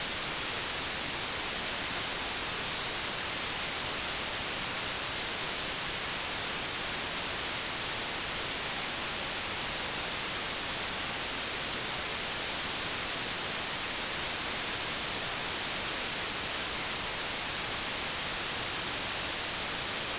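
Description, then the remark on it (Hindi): A 30-second sample of white noise resembling rain: a steady, unbroken wash with a soft hissing texture, constant in level throughout with no voices or other sounds. “इतनी बातचीत के बाद एक नमूना पेश करना तो बनता है तो चलिए अगले 30 सेकंड तक आपको सुनवाते हैं व्हाइट नॉइस बारिश की आवाज़”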